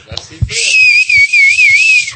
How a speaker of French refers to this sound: comment vous sifflez